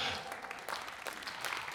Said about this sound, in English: Come on now, someone needs to get a hand clap for that right now.